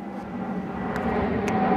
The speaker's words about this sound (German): Okay, dann wir, wir lassen mal kurz das Flugzeug durchfliegen ja.